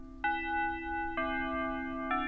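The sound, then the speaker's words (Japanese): A school chime rings out in three sustained, bell-like notes about a second apart, echoing through the school building at sunset, each tone lingering into the next over a low, steady background hum. No one speaks. “そこで、チャイムが鳴った。”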